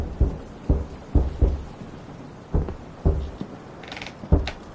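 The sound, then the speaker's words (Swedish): Heavy, dull thuds land on a wooden floor in an uneven rhythm, about eight impacts spaced irregularly, some in quick pairs, muffled, coming from the deck above. “Ett dunsande i golvet”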